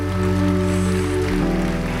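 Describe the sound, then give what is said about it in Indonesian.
A crowd claps steadily and loudly throughout, a dense continuous patter of many hands giving applause for God, with sustained keyboard chords droning underneath and shifting partway through. “tepuk tangannya yang meriah buat Tuhan kita.”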